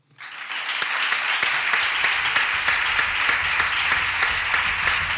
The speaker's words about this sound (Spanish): Así que lo, único que os puedo decir más es que un fuerte aplauso para la memoria de José María Fidalgo Vela.